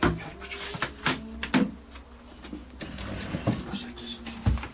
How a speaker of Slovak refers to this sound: Skladacie stoličky ktoré jedným, jedným pohybom sa dajú zložiť aj tak spraviť, aby sno sa dalo na nej sedieť.